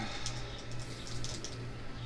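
Dice clatter and spin across a tabletop in a quick run of light, irregular clicks, fairly quiet and close, over a steady low background hum with no talking.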